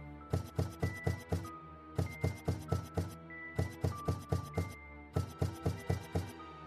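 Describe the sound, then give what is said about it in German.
Hard clicking taps of long, inhuman claws against the glass pane of a door, struck in quick groups of five with short pauses between, sharp with a faint ringing tone. “Er musste an die Hand denken, welches Geräusch sie erzeugte, als sie mit ihren langen, unmenschlichen Krallen gegen die Scheibe der Tür klopfte.”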